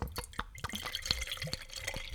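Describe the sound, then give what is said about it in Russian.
Liquid being poured into a cup, heard as a rapid run of splashy drips and trickles with bright, glassy clinks, steady for a couple of seconds with no voices. “Пока ты наливаешь, я тебе скажу”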